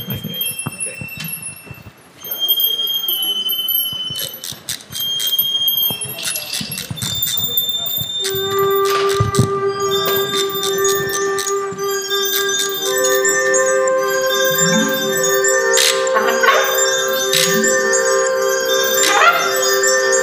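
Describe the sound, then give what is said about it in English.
A song plays at a steady, fairly loud level, with ringing bell-like tones and sustained notes, then wavering, sliding vocal-like sounds rising and falling over a held drone. “we're going to hear a song.”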